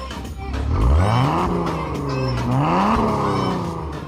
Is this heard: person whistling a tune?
no